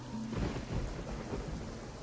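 Steady rain pours down at night in Jakarta with a dense, hissing wash while a deep rumble of thunder rolls low and continuous beneath it, fairly loud, with no voices.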